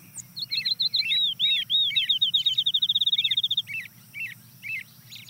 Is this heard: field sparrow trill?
yes